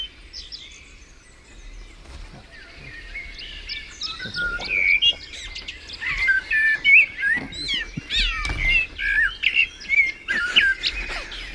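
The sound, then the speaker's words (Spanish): A Canary Islands blackbird on El Hierro, perched on a volcanic cliff above the sea at El Golfo, sings in slow, clearly separated phrases amid busy chirping from other small birds, building from faint to loud, with no talking. “es un mirlo del hierro canario y este tiene una peculiaridad.”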